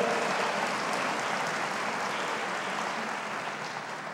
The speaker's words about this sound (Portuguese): Então aplauda o Senhor bem forte, diga aleluia.